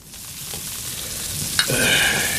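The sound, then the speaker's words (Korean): Meat sizzles and crackles steadily as a bookshop owner grills it over a fire he has lit in the mountains, a dense hiss that swells louder after a sharp pop midway through, with no voices. “친구를 반갑게 맞이한 책방 주인은 불을 피워 고기를 구웠다.”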